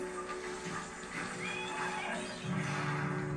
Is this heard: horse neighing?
yes